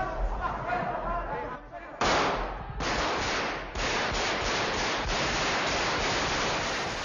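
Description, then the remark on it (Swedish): Loud, harsh bursts of automatic gunfire crackle in rapid succession as Tejero and his Civil Guards fire machine guns straight up into the ceiling, sounding indoors amid a din of noise, with faint voices underneath while people throw themselves to the floor. “Och då eh, tappar Tesjero det här och börjar skjuta rakt upp i taket och hans eh, civilgardister följer efter och skjuter med sina maskingevär rakt upp så det blir ett jädra smällande och folk blir livrädda och, och kastar sig ner på golvet.”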